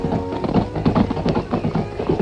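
Horses speed up their gallop through the countryside at night, their hooves clip-clopping in a quick, steady rhythm of many overlapping beats, fairly loud throughout.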